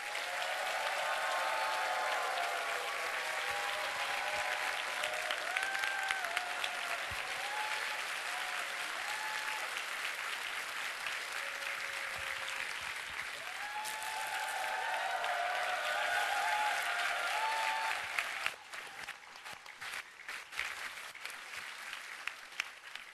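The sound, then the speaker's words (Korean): Sustained applause from a large church audience for the orchestra after a Christmas production, a dense, steady clatter of clapping that holds for over twenty seconds, swelling slightly midway before thinning into more scattered claps at the end. “오케스트라를 박수, 위해서 박수하시겠습니다.”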